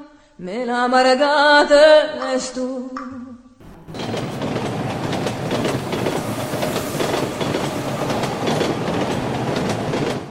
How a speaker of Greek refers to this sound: Το πρώτο τρένο που αναχώρησε από το σιδηροδρομικό σταθμό της Θεσσαλονίκης με προορισμό το Auschwitz έφυγε στις 15 Μαρτίου του 1943.